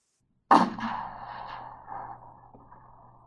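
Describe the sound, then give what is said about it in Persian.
A single sharp gunshot cracks out after a moment of silence, followed by a long reverberant tail that slowly fades, with faint low rumble underneath. “رفتم پایین چشمانم متمرکز بود بر نرده و پاهایم و قبل از اینکه برسم پایین صدای شلیک شنیدم”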